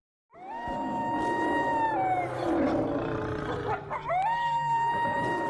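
Deep, drawn-out animal roars, including a tiger's roar, fill the whole stretch, loud, with several layered cries swelling and dipping together and a brief break before one more rising roar. No one speaks.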